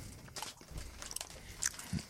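Crisp crunching of a giant sheet of roasted seaweed being bitten and chewed, a few sharp brittle crackles in quick succession with no talking.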